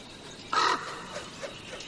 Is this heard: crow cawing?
yes